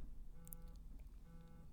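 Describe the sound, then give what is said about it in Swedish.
A phone rings quietly as someone calls, in two short tonal bursts with a pause between them, fairly faint against a low background hum. “nu är det någon som ringer.”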